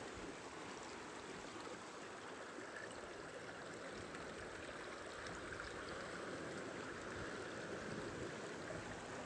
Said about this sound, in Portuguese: a água doce descendo da cachoeira. E encontrando com a água salgada do mar.